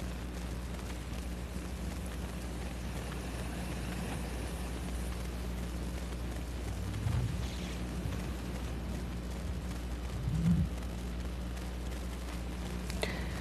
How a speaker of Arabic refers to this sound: في صوت هواء او شيء عندك مسطره ولا اتوهم انا لا تتوهم يا لما في صوت بحر عندي